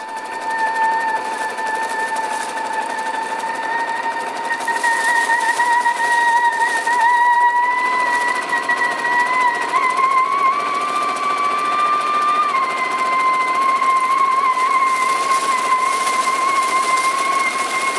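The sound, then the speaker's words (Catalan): A Singer sewing machine runs continuously, a dense rapid mechanical chatter under a steady whining hum whose pitch shifts slightly midway, with no voices. “el so de la mítica màquina de cosir Singer”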